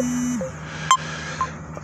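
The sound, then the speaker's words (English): A mobile phone rings with two short electronic beeps about half a second apart, over a low steady background hum and no talking; the call is from a car dealership. “But anyway, now they trying to like like my mind get hijacked, my phone ring.”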